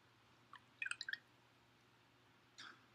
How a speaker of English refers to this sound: Go down to the Peachtree Creek or head up to the Chattahoochee or just put some water in a bowl and hold it. Let it drip off your hands